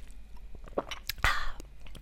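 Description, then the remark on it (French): Wet mouth sounds of someone taking a sip of pressed orange-ginger juice, with a short slurping swallow near the middle and small lip and tongue clicks around it. Nobody speaks. “Autre petit point, alors attendez, je bois une gorgée de mon jus d'orange pressé gingembre.”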